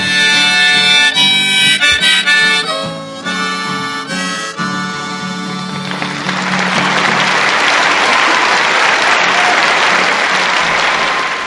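A song's final sustained notes give way to a burst of loud, steady studio audience applause that continues without letup to the end.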